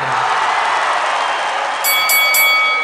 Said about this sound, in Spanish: Suena la campana final.